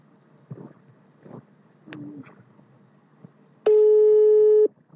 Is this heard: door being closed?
no